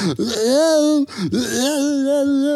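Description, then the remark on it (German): A voice imitates a drunk person screaming along a street in Nuremberg: two loud, drawn-out wailing yells, the first about a second long and the second stretching longer, slurred and moaning, with no other talk. “So, 20 Minuten später hörst du schon einfach von äh, der Straße entlang von Nürnberg, äh, das ist noch nichts gesehen, weil es nur jemand schreien gehört.”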